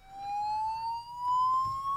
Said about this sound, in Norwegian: Altså Brannalarmen gikk